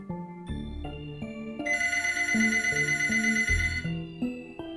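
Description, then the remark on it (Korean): A bright, jangling telephone bell rings steadily for about two seconds, set within a stepping melodic tune that plays before and after it; no voices. “어느 날 경찰은 그 과부에게서 전화를 받았습니다.”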